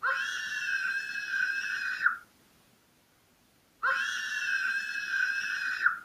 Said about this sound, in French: Il me semble, que c'était un... un cri. Mais ben oui, un cri d'un enfant.